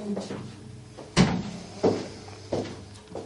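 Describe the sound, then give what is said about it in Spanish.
A door opens, followed by three heavy, evenly spaced footsteps thudding across the floor as a colleague enters, with faint muffled background noise. “Se ha oído hasta la puerta y los pasos.”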